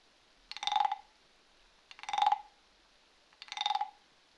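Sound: frogs croaking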